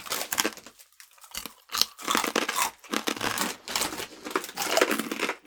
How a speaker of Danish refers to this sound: Vi skal simpelthen spise øh, flæskesvær.